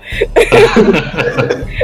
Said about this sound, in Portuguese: Aí, ó. Deixei essa tossida no, no, na gravação só pra provar que não é desculpa.